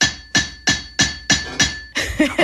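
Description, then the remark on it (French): A farrier's hammer strikes a 128-kilogram metal anvil about six times in a quick, steady rhythm, each blow loud with a bright, lingering ring, then a final flurry of clanks. “L'enclume, elle est là, hein. outil indispensable. Moi, je veux l'entendre.”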